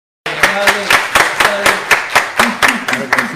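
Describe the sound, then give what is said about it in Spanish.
Audience applause in a steady, even rhythm, roughly fourteen loud sharp claps over a few seconds, with voices calling out underneath, from the audience present during a tour through the complex. “buenas tardes al público que está aquí presente, un aplauso para...”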